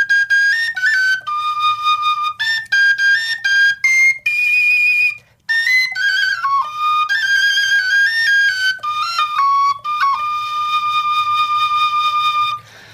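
A small Slovak folk pipe plays a lively solo melody in bright, high, breathy notes, with quick runs and ornaments and a brief pause partway through.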